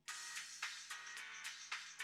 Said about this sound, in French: Le téléphone de, Daphné sonne.